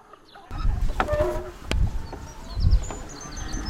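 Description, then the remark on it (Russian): Chickens cluck in short bursts outdoors as they walk by a road in Redkodubye, over a busy ambient background with faint high birdsong and insect buzzing. “У дороги гуляют куры, вдали лает пес.”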